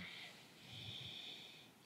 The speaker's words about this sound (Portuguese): Dá três sniffs, depois um longo, Peraí, como é que é a técnica? Três, é, três é, sniffs, né, que a gente fala. É. Sniffs é, é de cachorrinho. É, isso. Três fungadas. Isso, e depois uma puxada.